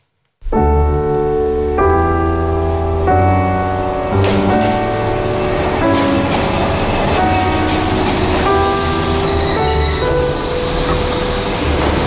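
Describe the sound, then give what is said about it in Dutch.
A train at the railway station in Amsterdam sounds its horn in long, chord-like blasts, then rumbles and clatters along the tracks with squealing wheels, loud, with no voices. “Een mevrouw die in de zomer van 1945 uitstapt op het station in Amsterdam...”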